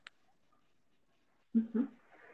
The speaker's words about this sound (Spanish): Que ya escuché tu mm, perrito, mm. ya, ya escuché ahí el perrito, oílo. También está en la charla él.